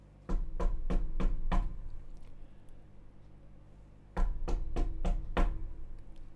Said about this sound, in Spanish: Se acercó sigilosamente, paso a paso, hasta llegar a la puerta. Quiso ser cortés con el monstruo, así que llamó a la puerta.